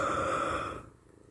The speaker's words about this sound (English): I can't stop yawning